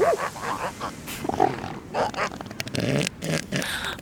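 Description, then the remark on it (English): Elephant seals grunt and bellow in a rough chorus, with deep guttural snorts and gurgling belches overlapping irregularly over a few seconds. “fluffing elephant seals.”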